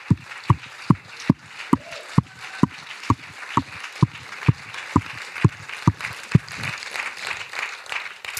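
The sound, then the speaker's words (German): An audience claps in unison to a steady, quick beat for the team members who arrived at 6:30 and stood up, about fifteen sharp loud claps over a continuous bed of crowd noise and scattered cheering, the clapping fading into a general roar near the end. “Komm, können wir mal einen fetten Applaus geben?”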